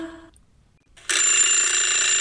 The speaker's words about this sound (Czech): zazvonil zvonec a pohádky je...